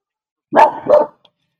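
A small dog barks twice in quick succession, two sharp, fairly high-pitched yaps, then silence.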